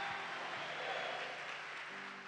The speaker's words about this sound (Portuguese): Dá uma salva de palmas ao rei. Aleluia!